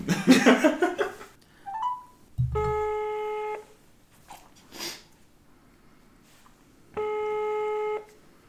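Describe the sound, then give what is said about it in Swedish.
An outgoing phone call rings: two steady electronic ringback tones, each about a second long and spaced a few seconds apart. Laughter and breathy voices come just before the first ring. “Den ringer Gattuso.”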